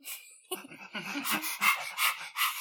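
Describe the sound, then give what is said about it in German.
A person imitates a dog panting: a quick run of breathy, rhythmic huffs, roughly two or three per second, moderately loud, with no talking. “Sonst würden wir hecheln wie die Hunde.”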